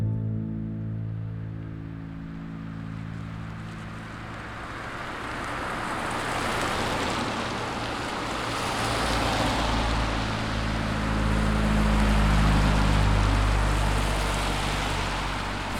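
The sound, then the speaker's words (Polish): Cars rumble past in both directions at the Polish-Ukrainian border crossing in Krościenko, near 11 pm on a freezing night, with a steady engine drone and broad road noise, one vehicle swelling louder toward the end before easing off slightly. No one speaks. “Dochodzi godzina 23, wciąż jeszcze jeżdżą samochody w jedną i w drugą stronę.”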